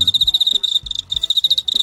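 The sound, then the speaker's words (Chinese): A field cricket, the Beijing 'zichong' sold on the market as youhulu, chirps on its own in a loud, high-pitched, shrill trill made of rapid pulses, running in quick bursts separated by brief gaps. “这个就是我刚才说的，嗯，北京的紫虫，也叫咱们市面上叫油葫芦。”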